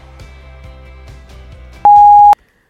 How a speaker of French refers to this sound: Après le bip, c'est à vous.